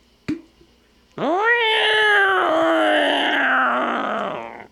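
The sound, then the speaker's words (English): A person vocally imitates a ghost cat's eerie meow: a short chirp, then a long, wavering, rising-and-falling moan stretched over several seconds, fairly loud with no other sounds. “And there's a ghost cat.”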